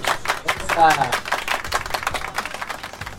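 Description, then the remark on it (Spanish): A short burst of applause for the guys, in Tucumán: rapid, uneven hand claps rattling steadily for a few seconds, fairly loud, with a voice briefly rising over the clapping near the start. “Por favor, poner un aplauso a los muchachos, por favor, por favor.”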